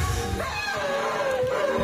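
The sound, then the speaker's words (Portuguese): A dog whines in long, wavering high tones over a song, its pitch sliding up and down as it keeps going without a pause. “o cão está a reclamar. É isso, chamar isto um dueto. Ele não está a cantar, ele está a reclamar.”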